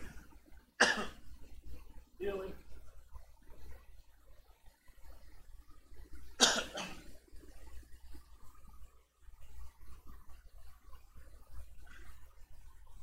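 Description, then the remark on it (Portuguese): A man clears his throat and coughs in short, harsh bursts after swallowing something, with a couple of louder rasping fits separated by pauses and a few muttered words in between. “Acho que eu engoli alguma coisa.”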